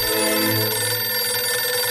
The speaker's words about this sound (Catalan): El so del telèfon va interrompre un somni eròtic meravellós que estava tenint.